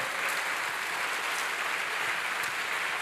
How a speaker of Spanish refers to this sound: Vuelva a darle un fuerte aplauso al Señor.